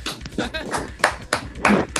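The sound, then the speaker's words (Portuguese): Several sharp hand claps land at irregular intervals, bright and fairly loud, mixed in with people talking over them. “palmas é, pra ele.”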